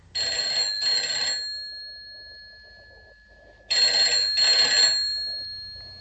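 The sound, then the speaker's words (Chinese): A telephone rings twice, each ring a quick double burst of bright, metallic bell tone that lingers and fades between rings, with no one speaking. “啊，大概是永瑜他们来电话了。”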